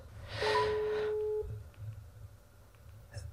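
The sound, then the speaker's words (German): A phone call ringing on speakerphone around half past seven in the evening: one steady, mid-pitched ringback tone lasting about a second, then a pause with only a low background rumble and faint clicks. “Ich rufe sie jetzt mal an.”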